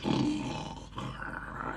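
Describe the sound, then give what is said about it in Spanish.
A deep, rough bear growl rumbles loud, holding steady for just under two seconds with a brief dip in the middle, and no voices around it. “Otras veces gruño a la altura del horno.”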